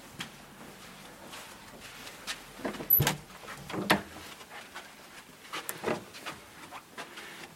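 A cloister door is opened and shut, with a few scraping, clattering knocks and a sharper thud near the middle, with no talking.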